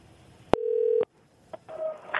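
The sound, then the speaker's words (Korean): A sharp click, then a steady half-second telephone tone cuts off abruptly. After a brief pause comes another click and a buzzier ringing tone, like a call connecting on a phone line, as comedian Park Myung-soo, hosting a radio show, phones someone about a travel scam. “다시 한번 다시 한번 예, 그짠 듯이 다음에 다시 예, 다시 한번 걸어 다시 한번 걸어봐 주세요.”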